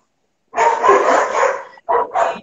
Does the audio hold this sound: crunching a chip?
no